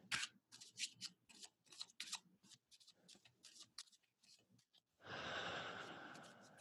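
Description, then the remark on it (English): A deck of cards being shuffled: several quick papery snaps and flicks, then a sustained fluttering riffle as the cards cascade together near the end, with no talking. “take a moment so we can hear him shuffling.”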